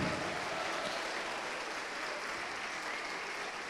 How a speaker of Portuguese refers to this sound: Vem para cá e vamos aplaudir ao Senhor, e está chegando. E está chegando. E está vindo. Vamos aplaudir mais, vamos aplaudir mais, vem.